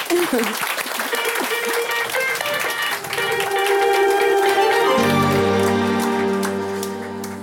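A steady burst of applause blends with sustained musical tones, loud and continuous; after about five seconds the clapping gives way to held low notes that fade slightly at the end.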